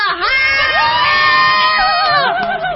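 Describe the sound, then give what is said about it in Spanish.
A concert crowd cheers loudly, a dense wall of high-pitched screams and shrieks held steady for a few seconds, rising in at the start and wavering near the end, recorded on a mobile phone. “¿Qué tal mi grabación, Rebeca?”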